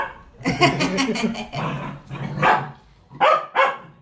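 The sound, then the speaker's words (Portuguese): A dog barks repeatedly in quick, uneven bursts, a rapid cluster at first and then a few sharper separate barks, fairly loud with no talking over it. “É, ele, ele tá aqui o tempo todo latindo.”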